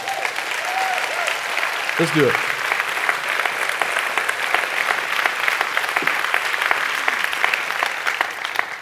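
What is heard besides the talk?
audience clapping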